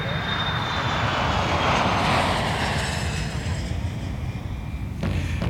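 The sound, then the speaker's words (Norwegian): A steady, loud roar of an airplane engine on a flight to Sheremetyevo airport in Moscow fills the whole stretch, a broad continuous drone with a faint high whine riding on top and no voices. “Så gikk jeg om bord i flyet.”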